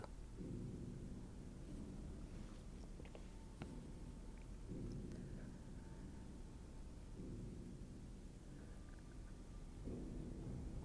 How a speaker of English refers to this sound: There was a sound like thunder, but longer and lingering, and it rolled across the sky like a wave.